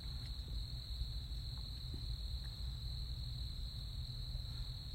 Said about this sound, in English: I'm like underneath this Spanish moss tree right now. Holy. And um, I'm praying that y'all can hear the crickets because holy Hannah.